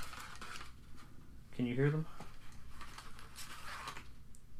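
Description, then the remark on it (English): Four red coloring pencils, made in the USA by Musgrave Pencil Company of Shelbyville, Tennessee, rattle and click against each other as they are unpackaged and handled, a few light scattered clatters, partly under a person talking. “Can you hear pencils?”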